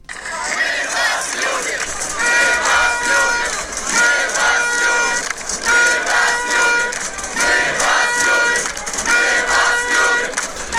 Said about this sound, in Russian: Ну вы понимаете, друзья, что это не ОМОНовцы кричат «Мы вас любим», да? Это люди, которые да, стоят напротив ОМОНа, так стенка на стенку, и они кричат, и мы вас любим.